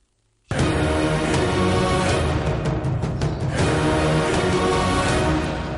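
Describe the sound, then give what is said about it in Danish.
The new sound logo jingle of the betting brand Oddset from Danske Spil: short, loud and brightly produced, bursting in after a brief silence, with dense layered instruments and a cluster of percussive hits midway, easing off slightly at the end. No one speaks. “Og oddset på Danske Spil har fået en ny lyd.”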